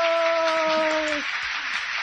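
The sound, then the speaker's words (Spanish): Steady applause fills the whole stretch, a dense crackling wash of many hands clapping, welcoming a nutritionist guest on a radio show, while a sustained tonal voice holds a note over the first half before fading out. “Y ahí están los aplausos, tardes pero seguros.”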